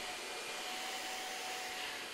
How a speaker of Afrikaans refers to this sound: Binne 'n japtrap het hulle die toepassing afgelaai op hulle fone en die stofsuier draai al in die rondte in die sitkamer.